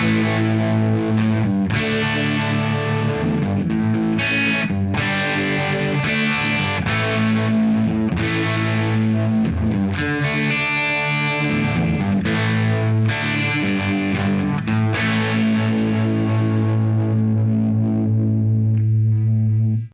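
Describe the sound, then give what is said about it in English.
Thick, distorted electric guitar chords in open voicings near first and third position, strummed in a steady series through a tube phaser pedal with a swirling, traditional phasing sound, loud with no voices, the last chord ringing out at the end. “I'm going to play some chords down near first and third position. Open voicings a lot, chunkier, thick kind of sound.”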